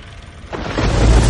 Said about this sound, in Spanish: Residencia Moreno Ivanova, 1945. Mario llega en un coche a su casa y un hombre le respuesta de la lluvia con un paraguas.